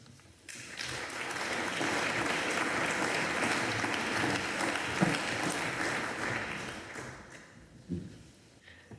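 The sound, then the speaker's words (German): Loud, sustained applause from the Karl-May-Gesellschaft at a congress swells in quickly and holds as a dense wash of clapping for several seconds, then thins out toward the end with a few scattered claps. “die Karl-May-Gesellschaft hat sich mit tosendem Beifall angeschlossen.”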